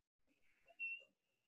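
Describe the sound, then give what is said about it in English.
A dog's thin, high-pitched whistling whine, drawn out over about a second and swelling louder in the middle before trailing off; faint, with no talking. The dog wears a cone, is recovering from hip and knee surgery, and its sedatives have not yet taken effect. “Uh, folks, that is the sound of a dog whose sedatives have not kicked in yet, who's suffering from hip and knee surgery.”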